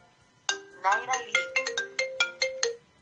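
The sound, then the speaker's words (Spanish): A mobile phone ringtone plays a bright electronic melody of about a dozen quick, evenly spaced tonal notes, fairly loud, with no talking over it. “Eh, vamos a, silenciar mi, mi teléfono, que no me, no me molesten.”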